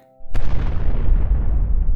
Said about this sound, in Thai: ดวงอาทิตย์สีแดงก็ได้ระเบิดสะเก็ดไฟออกมารอบๆทำไมดวงอาทิตย์สีแดงดวงนั้น ถึงได้ระเบิดพวยพุ่งออกมาแบบนั้นนะ